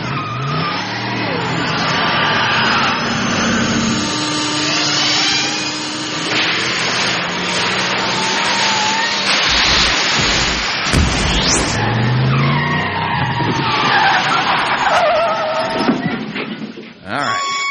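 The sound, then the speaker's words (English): A time machine car roars as it accelerates to 88 miles an hour into a time-travel effect: loud, dense engine revving with squealing tires, rising whooshes and crackling electrical bursts sustained for several seconds before cutting off abruptly. “So let's go ahead and get up to 88 miles an hour as we travel back to the last quarter of the year 2004.”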